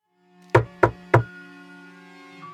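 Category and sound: impact, knocking on a door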